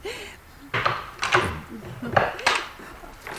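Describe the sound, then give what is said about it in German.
A few sharp metallic clicks and rattles, like a door chain being slid free and unhooked, followed by a door opening. The bursts come in an uneven sequence, moderately loud. “Einen Moment, ich löse die Kette.”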